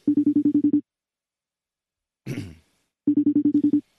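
A telephone ringing tone of an outgoing call sounds in two short bursts of rapid, buzzy pulses separated by about two seconds of quiet, with someone clearing their throat during the gap.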